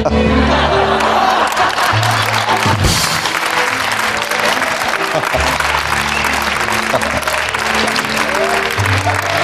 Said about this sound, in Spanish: Me ha, dolido que le aplaudáis eso y la pestindería haya pasado como la mierda. No, pero eso era un poquito el aplauso de la, de la pena y vergüenza ajena también.